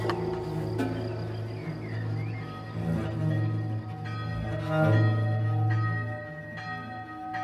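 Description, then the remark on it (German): A monastery church bell tolls to call the monks to night prayer, with a deep, sustained ringing that swells and lingers, its rich overtones humming continuously, fairly loud, with no voices present. “Wo die Glocke zum Nachtgebet ruft und alle Mönche ihre Werkstätten, Schreibstuben und Zellentüren geschliessen, um in der Klosterkirche zu beten”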